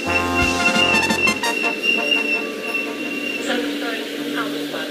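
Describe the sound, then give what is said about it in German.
An ÖBB Railjet train rumbles steadily along the rails, with rhythmic low thumps from the wheels early on and high, sustained squealing tones ringing over the continuous running noise. “Willkommen im ÖBB Railjet.”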